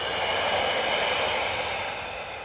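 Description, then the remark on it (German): A long, steady exhale breathed out during a guided meditation, a soft airy rush that holds evenly for a couple of seconds and eases off slightly at the end, with no talking. “Und wieder aus”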